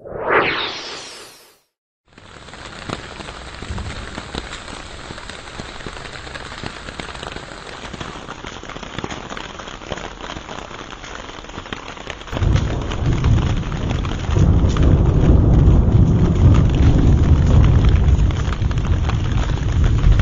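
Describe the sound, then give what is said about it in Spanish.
Heavy Mexican monsoon rain pours down steadily in Puebla, Mexico, in a dense, hissing roar, swelling louder and deeper partway through as the downpour intensifies, with no voices. “Las lluvias del monzón mexicano ya están causando estragos en Puebla.”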